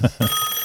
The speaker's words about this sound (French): ah, là, c'est un téléphone par contre. Ça, je reconnais.